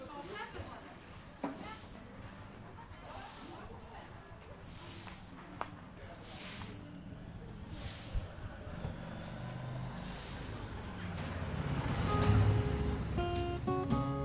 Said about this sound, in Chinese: 我觉得花鸟市场的声音还是挺丰富的，但是可能因为没有经验，呃，我估计拍出来这次录出来的效果没有那么的理想，没办法完全呈现它的一个听感。